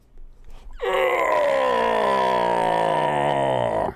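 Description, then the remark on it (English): A human voice imitates the bellow of Polyphemus the Cyclops: one loud, drawn-out roar lasting about three seconds, sliding slowly downward in pitch before cutting off, after a brief quiet breathy lead-in. “He bellowed.”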